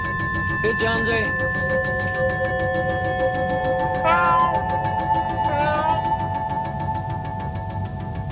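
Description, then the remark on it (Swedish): A cat, Jonesy, meows three times, drawn-out and wavering, spaced a few seconds apart over a steady mechanical hum with faint pulsing and high tonal whines. “Here, kitty, kitty, kitty, kitty, kitty, kitty.”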